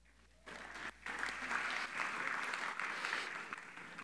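An audience breaks into applause, a dense wash of clapping that starts abruptly, dips for a moment, then holds steady and fairly loud for several seconds without any voices over it.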